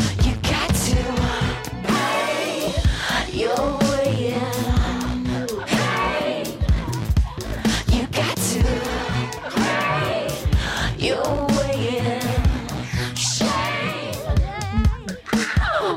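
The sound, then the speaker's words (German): A pop-rock song from an artist's new album, not very guitar-heavy, plays at full volume throughout, with a sung lead vocal riding over steady drums and a dense band arrangement, and no one talking over it. “Auf dem neuen Album nicht ganz so gitarrenlastig, aber wir hören hier mal rein in äh, …”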